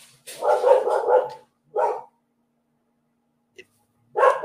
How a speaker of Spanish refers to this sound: Escuchan a Dixie. Dixie está ladrando frente a la ventana. ¿Por qué creen que lo esté haciendo? ¿Está alegre? No suena alegre. Eh, suena más bien como molesta, suena como enojada.